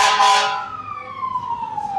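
fire truck sirens passing

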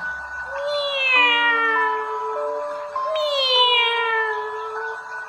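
cats meowing

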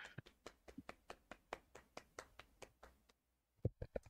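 one person clapping hands

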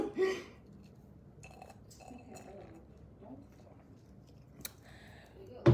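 sipping a drink

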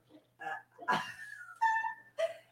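dog barking loudly

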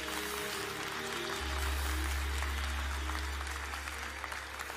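audience clapping hands

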